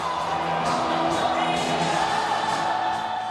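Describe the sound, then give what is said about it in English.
Thousands of hockey fans roar and scream continuously in a big reverberant arena, a dense, steady wall of cheering with scattered whoops rising out of it, loud and sustained throughout. “It wasn't long before the song moved out of the locker room and into the arena to the delight of thousands of screaming fans”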